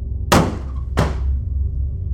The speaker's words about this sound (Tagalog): Nahimasmasan ako mula sa pagkakatulala nang biglang magsara ang pintuan ng banyo.